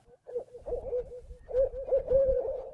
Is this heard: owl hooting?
yes